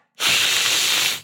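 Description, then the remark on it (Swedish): A person imitates a swan's hiss: a single sustained, breathy hiss lasting about a second, steady and fairly loud, starting abruptly after a brief silence. “Har du hört en svan någon gång? Nej, de, ja, de låter så här.”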